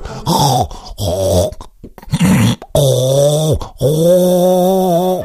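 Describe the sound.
A person imitates snorting and throat-hawking in a rapid series of five or six loud, rasping grunts and snorts with brief gaps between them, as if clearing the nose and throat.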